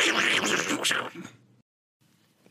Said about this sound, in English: That was the noise of you uh, crinkling in an erotic fashion.